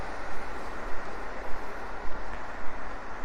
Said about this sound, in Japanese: 電車でだからどうしてもね電車で入っちゃうんですよごめんね、みんな。